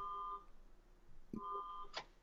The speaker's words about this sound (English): There's a car alarm going off in your background. That's very Letterman. Um, yeah, that's nice that you could hear it. I, that's our neighbor, and I don't know why they have that car alarm because it goes off nonstop,